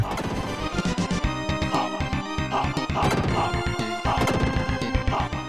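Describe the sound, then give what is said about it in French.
Dense, chaotic video game music from the Streets of Rage series, with clashing tones and busy, crashing percussive hits tumbling over each other, loud and continuous throughout with no talking. “On croirait entendre un chat épileptique courir avec grande difficulté sur un clavier bon tant acheté par pitié lors d'une soirée Emmaüs”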